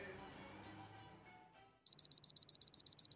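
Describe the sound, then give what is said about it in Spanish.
An alarm clock starts ringing after a muffled stretch, a loud series of rapid high-pitched electronic beeps pulsing in a steady, even rhythm with no one speaking. “Suena el despertador.”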